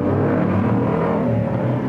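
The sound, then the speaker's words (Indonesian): Loud, steady engine noise of motorcycles revving on the street across from a rented boarding room, at night, a continuous throaty rumble with no talking. “that's it keributan motor yang katro banget orang-orangnya”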